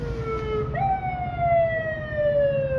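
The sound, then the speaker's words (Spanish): A police patrol car's siren wails steadily as the vehicle passes by without stopping, its pitch jumping up and then sliding gradually lower, over a constant low rumble of road traffic. “Ahí va, ahí va la patrulla, se fue.”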